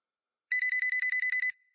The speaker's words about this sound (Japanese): そんな中に電話が鳴った見覚えのない番号からだまたかよ